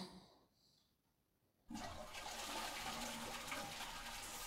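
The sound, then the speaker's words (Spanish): A toilet in a school bathroom is flushed by pulling the chain: after a quiet start, a sudden loud rush of water begins and keeps roaring steadily to the end, a broad hissing gush with no voices. “Cuando jalé de la cadena y abrí la puerta escrita con puros insultos de pendejos, oí a alguien sollozar.”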